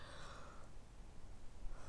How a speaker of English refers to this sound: Sorry. It's a little baby yawn.